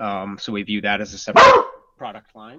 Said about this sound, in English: Sorry, that was our dog.